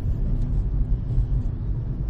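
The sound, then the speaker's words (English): A steady, deep engine and road rumble fills the whole stretch, inside a car driving home through heavy traffic, with a muffled low drone and no voices. “Now we're going home. There's a ton of traffic.”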